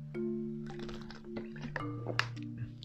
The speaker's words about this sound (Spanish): Perdón, es que estoy tomando un poquito de agua porque esto días está un poco más deshidratado.